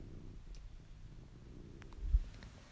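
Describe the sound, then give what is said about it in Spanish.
A cat named Wilson purring softly, a steady low rumble with a gentle pulsing texture that runs throughout, broken only by a few faint clicks and a brief soft bump. “El Wilson está ronroneando.”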